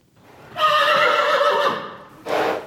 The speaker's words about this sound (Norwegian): Unghesten Martin vrinsker i båsen sin på stall Horgen i Hokksund.